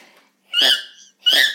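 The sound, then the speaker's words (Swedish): A person imitates a dog's high, squeaky bark with two shrill, sharp yaps separated by a short pause, fairly loud, with no talking. “Ja, han låter, alltså jag får typ tinnitus när han skäller för han låter typ så här.”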